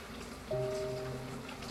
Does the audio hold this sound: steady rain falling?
yes